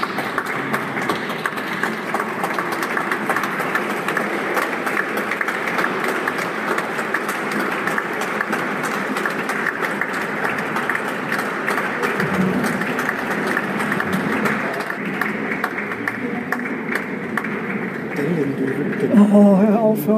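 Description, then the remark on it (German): Sustained audience applause for a brass orchestra entering fills a reverberant church, a steady wash of many hands clapping at once with a murmur of voices underneath, continuing evenly for about twenty seconds. “Das war gerade der Applaus für das Blasorchester, die hier reingekommen sind.”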